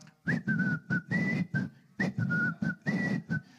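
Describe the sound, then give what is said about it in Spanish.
A short whistled tune, played as a march-like phrase and then repeated, loud, with heavy rhythmic thumps landing on the beats; townspeople whistling as a soldier passes. “Porque en mi pueblo, cuando pasa un soldado, empiezan a, a chiflar.”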